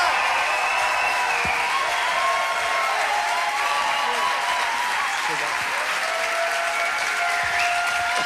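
Loud, sustained applause from a large audience in Hamburg welcoming a guest, steady clapping for several seconds, with faint cheers and whoops scattered through it.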